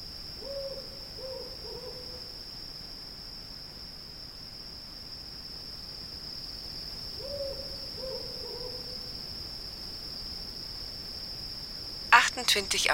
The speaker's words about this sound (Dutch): Hier hoort je af en toe wel een uil, hè. Die gaat dan boven op die draad zitten en dan ja, begint hij te roepen, hè.